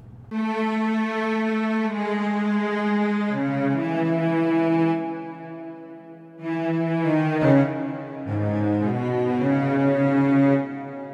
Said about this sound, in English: Composing cello seconds is, is a technical affair. However, I'll let you listen to just the cello part.